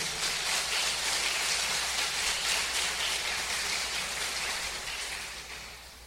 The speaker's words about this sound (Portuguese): Aplausos para Jesus, irmão.